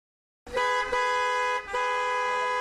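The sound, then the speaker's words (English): Loud, sustained car horn blasts in busy Friday-evening traffic, sounding nearly continuously, with a couple of brief dips between overlapping honks and no voices. “What a busy traffic on this Friday evening!”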